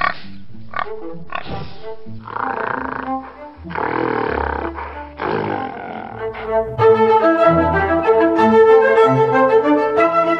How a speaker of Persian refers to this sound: صدای گراز از نزدیک شنیده می شود همه بی اراده چوب ها را بالا می برند.